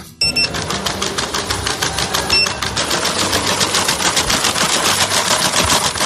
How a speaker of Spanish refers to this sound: Así suena al caminar este pequeño robot de cuatro patas. Tefi debe su nombre a las siglas del Instituto de Tecnologías Físicas y de la Información, centro que pertenece al CSIC, donde ha sido creado.